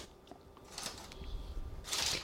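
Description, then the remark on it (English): Soft crumbling and squishing of a thick oat dough topping being broken apart by hand and spread evenly over the top of a chocolate dish lined with parchment paper, with light crinkly rustles and a brighter crunchy burst at the end, no talking. “You want some of that chocolate to show through, which is why we're crumbling it rather than trying to pour.”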